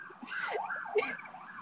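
A police siren wails in quick rising and falling sweeps, fairly faint, from a police car passing along a busy street.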